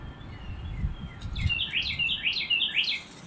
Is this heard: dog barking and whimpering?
no